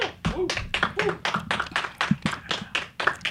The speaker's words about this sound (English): clap for Amber Rose.